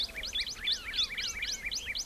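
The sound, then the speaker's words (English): Gila woodpecker and gilded flicker calls at sunrise at Organ Pipe National Monument: a rapid, overlapping series of sharp, high chirps and trills repeating steadily over a quiet background hiss, with no voices. “Those are Gila woodpeckers, and that's a gilded flicker.”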